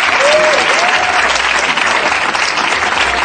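A crowd applauds steadily and loudly throughout, a dense wash of many hands clapping at once, with a brief whistle cutting through near the start.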